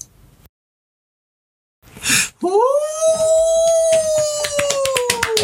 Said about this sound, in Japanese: これあの、小林さんちのメイドラゴンっていうね、アニメのエンディングなんですけど、生きの方の。